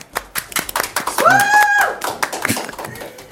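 A short burst of applause: many hands clapping in a quick, irregular patter, with a high whooping cheer rising and sliding over the claps midway.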